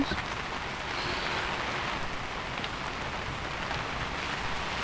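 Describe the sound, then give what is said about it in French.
Steady rain patters continuously outside a tipi, a dense, even hiss of drops with no pauses and no voices, fairly loud throughout. “La pluie est revenue, mais le feu.”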